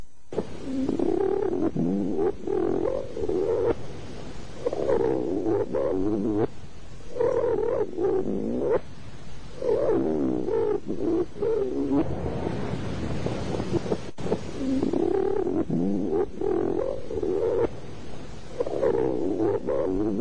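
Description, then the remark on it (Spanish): A reversed voice recording yields eerie guttural sounds like howls, barks and growls, coming in loud repeated bursts of about a second over a constant breathy, wind-like hiss. “Digo, esto más que palabras que nosotros interpretamos como palabras parecen casi aullidos, ladridos, gruñidos.”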